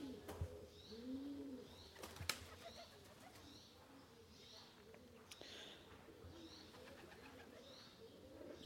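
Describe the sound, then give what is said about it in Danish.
Many pigeons coo softly in low, rounded calls, one somewhere overhead, with a few sharp bursts of wings flapping, over a steady outdoor background in a peaceful place. “Sådan jeg hører de der baskende vinger.”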